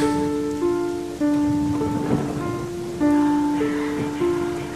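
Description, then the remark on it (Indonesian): Heavy afternoon rain pours steadily outside a fifth-floor office, with strong wind and lightning, and a low rumble of thunder swells midway, while sustained musical tones hold and shift in pitch over the downpour; no one speaks. “Derasnya hujan dan suara gemuruh petir yang disertai kilat semakin menjadi.”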